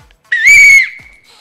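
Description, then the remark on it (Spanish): A single loud, shrill whistle blast rings out for nearly a second, steady in pitch and slightly breathy, then tapers off. No one speaks. “y lo que le iba a decir es que si uno está en el bosque o algo, a veces la gente grita, pero eh, la voz humana es muy fácil que se pierda con la naturaleza. Pero un pito”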